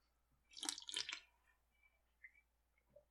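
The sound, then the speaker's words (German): Water trickles and splashes in a couple of quick bursts, then a few soft, scattered drips plink in the quiet that follows, like a small babbling brook. “Das Bächlein plätschert.”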